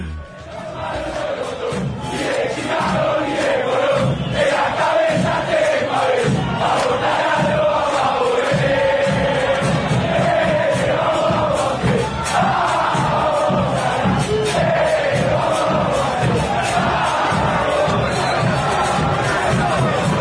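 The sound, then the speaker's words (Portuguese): A huge crowd of Banfield football supporters chants together in a stadium, a loud, steady, rhythmic roar of massed voices that carries on without a break from start to finish. “Torcida do Banfield. Vamos lá.”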